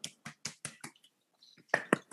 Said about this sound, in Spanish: Te ganaste un ¿eh? aplauso de Nicole Kidman.